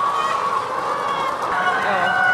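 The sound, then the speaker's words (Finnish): A busy flock of hens rushing to eat after being fed clucks and squawks together in a steady, dense clamor, with drawn-out rooster crows rising over the crowd as the roosters call their hens to the food, loud throughout. “Ja osalla niin kukot alkaa kiekumisen, koska ne kutsuu tavallaan sitä omaa harjamisia syömään sitten.”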